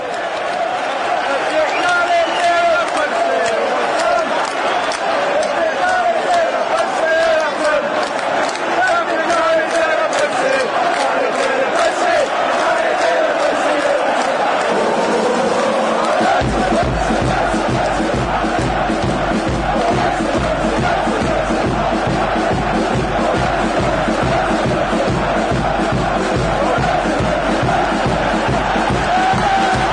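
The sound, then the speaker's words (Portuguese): A huge stadium crowd of Glasgow Rangers supporters sings a chant in unison, loud for the whole stretch. About halfway through, a steady rhythmic pounding of drums or stamping joins beneath the voices. “Vamos ao Poropopó de Glasgow. Viva o Glasgow Rangers!”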